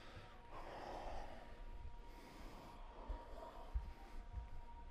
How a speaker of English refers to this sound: Make your lips seal and generate the, the sound of aliveness. Create throat breathing your yogic breathing.